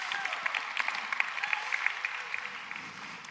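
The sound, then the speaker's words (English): A room full of people claps steadily, a dense patter of many hands at moderate loudness that holds evenly for a few seconds with no voices over it. “Can we give it up for”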